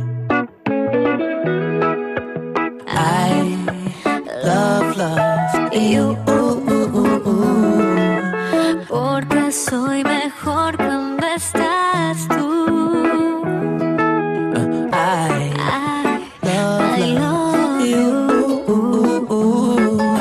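A pop love song plays loudly and continuously on France Bleu radio, with a steady beat, deep bass and bright layered melodic lines, briefly dipping for a moment before carrying on.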